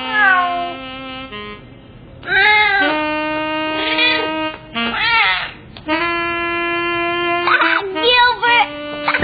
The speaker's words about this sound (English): you silly cat